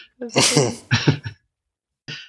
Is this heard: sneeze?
yes